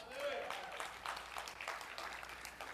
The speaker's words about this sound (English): I, I, actually, you need to clap for her more. She's had to live with me.